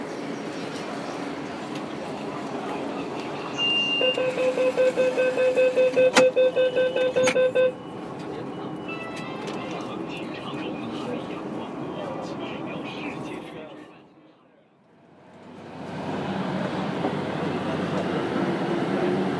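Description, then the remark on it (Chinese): A Beijing Subway train heading toward Songjiazhuang station, running with a steady, loud rumble and roar, a high pulsing tone sounding for a few seconds early on, then a brief lull before the roar returns. “欢迎乘坐北京地铁广化线列车，本次列车开往宋家庄站方向。”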